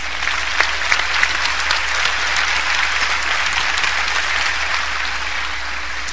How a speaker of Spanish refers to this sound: Vénganse, vamos a darles un aplauso a estas cinco chicas.